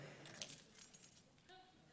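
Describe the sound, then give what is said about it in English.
A bright, metallic jangle of lost keys, found on the snack table, being shaken and handled, with several quick clinks, while muffled voices murmur faintly in the background. “so, if you're missing your keys, this was where was it found?”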